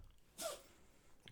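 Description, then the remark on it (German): A single sharp sneeze bursts out around the middle, loud, with a brief breathy hiss before fading back to quiet background noise. “Gesundheit.”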